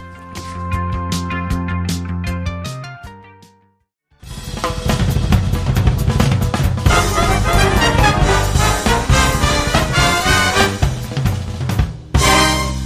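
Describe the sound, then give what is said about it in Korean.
A Korean pop song plays loudly: a soft melodic intro of sustained notes, a short pause, then a full, driving band arrangement that breaks briefly before surging back in. “네, 이 노래 들어야죠.”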